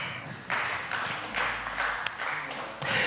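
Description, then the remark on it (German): An audience applauds an audience member from Möhring who correctly answered how high Stuttgart lies, a dense wash of many hands clapping for about three seconds that swells and dips in loudness without letting up. “Leute, Applaus.”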